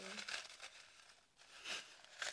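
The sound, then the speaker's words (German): A slip of paper rustles and crinkles in a few quick, scratchy bursts as it is drawn, with a brief pause in the middle before the rustling picks up again. “Naja, anyway, Themenwechsel, zieh einen Zettel.”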